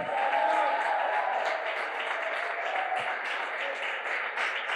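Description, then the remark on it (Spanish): Steady, dense applause from a crowd, many hands clapping continuously at an even loudness throughout, with a faint murmur of voices underneath, applauding the one seated on the throne. “Si alguien lo va a creer, yo no recojo aplauso por los mensajes, pero si va a aplaudir al que está sentado en el trono, apláudalo bata esas palmas, abra su mandíbula, diga algo.”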